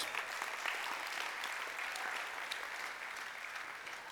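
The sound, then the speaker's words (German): Sustained applause for God from a large group fills the space, a dense, steady wash of many hands clapping at once, moderately loud and continuing evenly throughout with no talking. “Beifall für Gott.”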